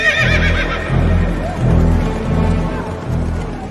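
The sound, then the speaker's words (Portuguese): A horse whinnies loudly, its wavering neigh rising over a steady, rhythmic thudding of hooves, like a gallop, for a few seconds with no talking. “O rei deu a ordem, os mensageiros montaram cavalos ligeiros da estrebaria real e saíram depressa.”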